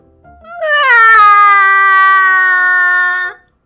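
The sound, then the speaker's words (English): A voice imitates Betty crying loudly after her banana broke: one long, sustained wail that swells quickly and holds a steady, high, strained pitch for about three seconds before cutting off. “Betty cried”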